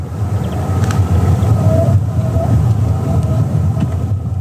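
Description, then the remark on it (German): Eerie whistling tones from ice forming at that moment glide and ping over a deep, steady rumble beneath the frozen surface, like whale song, with no voices. “Und dann habe ich da gestanden und das war wirklich das Eis, was sich in dem Moment bildete. Und das klang so ein bisschen wie Wahlgesang eigentlich.”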